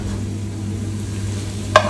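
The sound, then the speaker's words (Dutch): Noodles sizzle in a pan as the heat is turned very low, with a steady, even hiss over a low hum, and a single sharp clink of a utensil sounds near the end. No one speaks. “Ik ga nu het vuur eh, heel laag zetten.”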